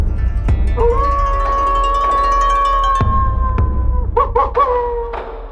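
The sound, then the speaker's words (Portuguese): A short segment intro jingle: a long, sustained wailing tone like a howl rides over a low rumble, punctuated by a few heavy thuds, then ends with quick repeated notes. No talking. “roda a vinheta, é o pensamento do lobo”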